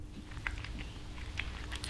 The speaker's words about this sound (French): Il avala la crème d'une lampée, puis il tapa sur son ventre comme sur un tambour.